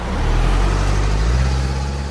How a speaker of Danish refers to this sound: En grøn bil svinger ind på parkeringspladsen. Jeg er ikke særlig god til bilmærker, men det kunne altså sagtens være en Opel.